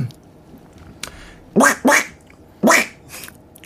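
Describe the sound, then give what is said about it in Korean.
A voice imitates Donald Duck, giving three loud, raspy, buzzing quacks: two in quick succession, then a pause before a third, with a faint click beforehand. “오리 소리를 희한하게 초등학교 때부터 낼 줄 알아가지고요.”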